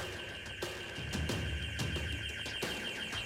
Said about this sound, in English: Before vaulting the barriers to the lift lobby, a shrill alarm started. An alarm started up.